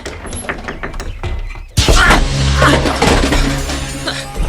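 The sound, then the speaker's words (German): A few light knocks on a caravan door, then the door bursts open with a sudden loud bang, striking someone on the temple, followed by a sustained, noisy clatter and rumble. “die Tür hat mich voll an der Schläfe erwischt.”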